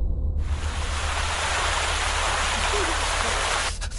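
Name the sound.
water spraying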